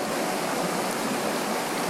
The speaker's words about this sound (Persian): الان میخوام تصور کنید کاملا چشتون رو ببندید یه رودخونه رو تصور کنید که همینجوری چشتون رو متمرکز کردید به آب و یه نوری داره هی خاموش میشه و صدای آب